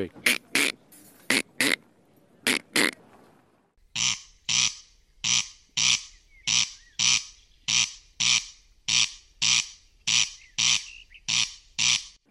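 A corncrake's harsh, rasping two-syllable call repeats steadily, crex-crex, each pair of dry grating notes evenly spaced and loud, with a faint hum behind the later calls.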